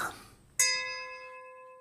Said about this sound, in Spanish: La Madre Superiora hizo sonar la campana.